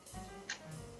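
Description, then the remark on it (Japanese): A clock ticking picked up by a microphone, with one sharp, crisp click standing out over a faint steady hum and softer ticks on either side. No voices. “今ねちょっとなんかさっきより音声が若干悪くなって時計の勝つ時がすごい入ってくる次元爆弾が爆発するんじゃないかみたいな”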